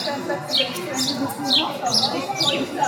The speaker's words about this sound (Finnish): Onko se toi pikkulintu tosta? Se on hukannut jonkun.